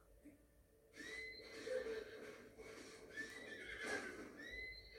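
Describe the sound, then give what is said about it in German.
A horse in a video game whinnies in a long, wavering neigh with rising and falling pitch, loud, followed by a second shorter whinny, with no talking over it. “Junge, du bist das legendäre Pferd.”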